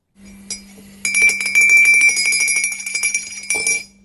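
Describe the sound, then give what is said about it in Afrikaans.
A spoon stirs briskly in a ceramic cup, clinking rapidly against the sides with a ringing tone for a few seconds, fairly loud, with no voices. “Die geloofslepel word geroer hier op Coffee Date.”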